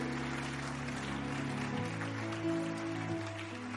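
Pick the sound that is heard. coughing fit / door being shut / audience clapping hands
audience clapping hands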